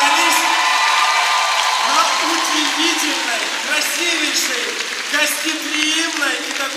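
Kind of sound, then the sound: crowd, audience applause and cheering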